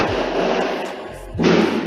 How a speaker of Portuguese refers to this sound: Foguetes para Alex na escola.